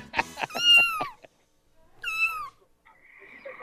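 A cat meows twice: a long, wavering meow followed after a pause by a shorter one, with faint background noise trailing at the end and no talking.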